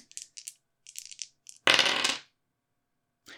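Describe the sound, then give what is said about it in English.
Two dice are rolled across a hard tabletop for a game roll, landing on a one and a two: a quick run of small, sharp clicks and rattles, then a louder half-second tumble, and a faint final tick after a pause. No one speaks. “I'm going to need you to roll to manipulate someone.”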